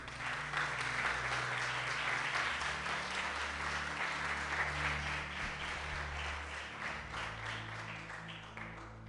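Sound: audience applauding loudly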